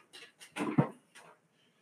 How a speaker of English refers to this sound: I love this fucking dog.